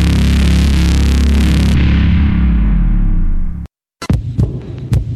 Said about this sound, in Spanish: ¿Escuchas? Es el corazón morado y amarillo de todos los mexicanos.